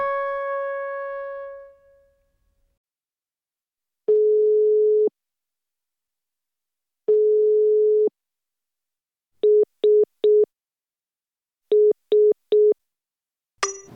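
A fading chime, then a telephone ringback tone sounds twice as long steady single-pitch beeps with pauses as a call to a mobile phone set to silent goes unanswered, followed by two sets of three quick beeps and a click.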